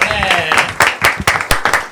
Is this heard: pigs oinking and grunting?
no